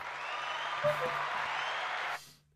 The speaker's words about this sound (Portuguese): Uma salva de palmas!